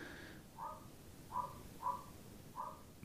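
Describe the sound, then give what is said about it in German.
A dog barks four times in a steady rhythm, sounding muffled, with short gaps between each bark over a quiet background hum. “Schön, dass er den Hund bellen hört.”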